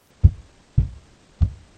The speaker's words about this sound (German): Draußen hörte man schon schwere Schritte kommen